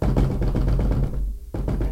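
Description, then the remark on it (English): Rapid, forceful knocking in a dense flurry, imitating a man pounding violently on a next-door door, briefly pausing before the hammering resumes. Loud, with no talking. “The knocking continues. but now it gets. Then he starts on that, but it gets violent.”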